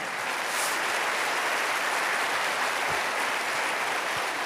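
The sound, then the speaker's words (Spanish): An audience applauds steadily, a dense, even wash of many hands clapping that holds at a constant loudness without pause or clear individual claps standing out. “Alguien tiene que aplaudir más que eso si lo cree, ¿sí o no?”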